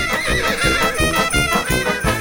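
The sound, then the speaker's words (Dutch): A knight's horse whinnies loudly over a quick, steady clip-clop of hooves, the galloping rhythm continuous throughout, with no one speaking. “een ridder op zijn paard.”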